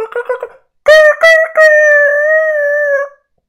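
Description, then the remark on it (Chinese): A rooster crows, the one kept of two caught chickens after the other was killed: a few short clucking notes, a brief pause, then a loud, choppy rise into one long, strained, high-pitched call that holds steady for over a second before cutting off. “不久呢，留的这只打鸣了。”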